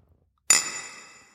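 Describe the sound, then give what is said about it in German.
Beer glasses of summer beer clink together once in a toast in the countryside, a bright chime with a shimmering ring that fades away over about a second, with no talking. “Prost. Prost.”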